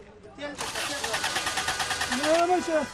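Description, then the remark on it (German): A taxi's engine cranks over and over in a steady, rapid chugging rhythm without catching, loud, while a person talks over the top of it. “Das Auto will nicht mehr.”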